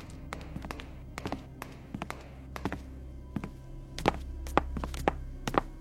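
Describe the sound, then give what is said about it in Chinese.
In an alley, a series of sharp footstep taps from someone behind a walking man lands at an uneven pace over a low steady hum, growing louder and more frequent in the final seconds. No one speaks. “又一阵脚步声响起，就在他身后，近了。”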